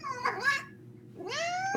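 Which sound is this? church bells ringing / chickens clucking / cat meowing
cat meowing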